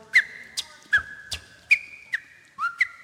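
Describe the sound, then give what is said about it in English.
A voice imitates sneakers squeaking on a gym floor: about eight sharp, high chirps in an uneven, scrambling rhythm, clear with no talking. “Uh, I can sneakers on a gym floor.”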